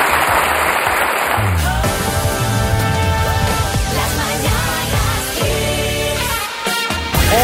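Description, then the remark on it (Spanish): A short burst of audience applause for Luis Yeray Gutiérrez, mayor of La Laguna, during the Kiss morning radio show broadcast from Vigo, fills the first second or so, loud and dense, before giving way to a bright musical jingle that carries on for the rest. “Muchas gracias, un aplauso para Luis Geray Gutiérrez, alcalde de La Laguna.”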